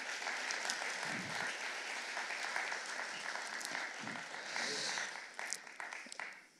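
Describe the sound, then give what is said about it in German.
A crowd applauds a guest being invited to the front, a dense wash of clapping that holds for several seconds, then thins out into scattered claps before fading away. “Einmal einen Applaus und ich lade dich hier zu uns nach vorne ein.”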